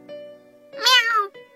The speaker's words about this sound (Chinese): 猫妈妈吓了一跳，迅速挡住小猫。面对飞来的异物，猫妈妈伸直了身体，两只前爪死死地抵住地面，双眼发出幽光，不时发出声音：“ 喵。”